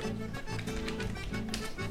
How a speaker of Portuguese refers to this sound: digitando ali, eu deixei só o barulhinho das teclas ali.